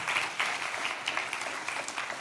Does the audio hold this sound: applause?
yes